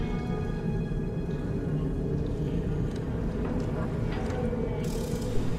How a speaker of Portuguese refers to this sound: Um lugar todo escuro. Os únicos sons que ele escuta é o barulho de correntes.